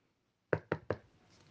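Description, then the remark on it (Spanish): Three firm, evenly spaced knocks on a door, fairly loud, with a faint hiss trailing after and no voices. “llamó de nuevo el grillito.”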